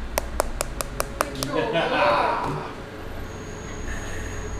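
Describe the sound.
About seven quick, sharp knocks in a steady rapid series on a car window at about 2:15 at night, followed by a softer rustling wash of sound and low background noise.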